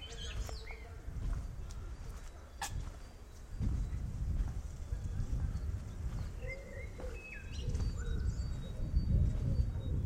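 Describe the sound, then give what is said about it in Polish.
Gusts of wind buffet the microphone in low, rumbling surges that swell and fade throughout on a spring day, while small birds chirp and tweet faintly in the background. “Słychać trochę podmuchy wiatru.”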